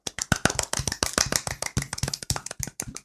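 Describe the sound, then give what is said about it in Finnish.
Soft, polite golf clap from a small group for the winners of a Wii U naming contest, a steady patter of light hand claps lasting about three seconds with no voices over it. “Siinä on voittajanne ja golf-taputus.”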